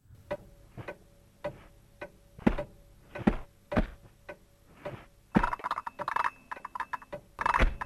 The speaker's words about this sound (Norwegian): Først er det en klokke. Ja. Men dette er veldig distinkte lyder fra et eller annet spill, det tipper jeg.